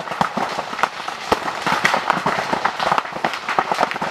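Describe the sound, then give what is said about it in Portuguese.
Green bamboo stalks burning in a fire crackle and burst with a rapid, irregular series of sharp, loud pops as the overheated wood expands and explodes, continuous, with no voices present. “Mas perceberam que quando aqueciam demais, a madeira expandia e explodia, fazendo um enorme barulho.”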